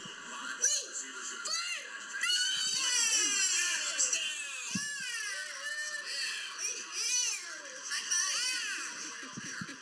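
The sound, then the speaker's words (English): A two-year-old boy yells and squeals excitedly while watching football, in loud, high-pitched bursts with rising and falling pitch, nearly continuous for about ten seconds, with faint background noise underneath. “Yelling, edge of chair. He's high fiving. He's throwing up his hands on a bad call, smiling, laughing.”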